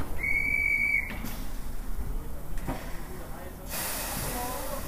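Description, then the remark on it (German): A steam locomotive of the Fichtelbergbahn, hauling three or four historic carriages from track 4 at the small station of Kranzahl in Saxony, 654 m above sea level, gives one sharp, loud whistle blast lasting about a second, then steady hissing steam continues, growing brighter and stronger toward the end. “Dreimal am Tag fährt in der Nebensaison von Gleis 4 die Fichtelbergbahn ab. Drei oder vier historische Waggons hinter einer Dampflok.”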